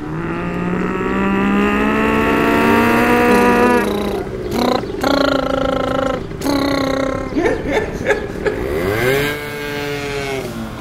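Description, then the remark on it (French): A voice imitates motorcycles revving and backfiring in the street: a long buzzing engine drone, then choppy popping bursts and a rising rev, loud for about ten seconds. “Alors, un bruit qui me dérange ce sont les motos qui pétaradent dans la rue.”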